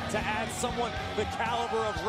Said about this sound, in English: What are you clapping for, Stephanie?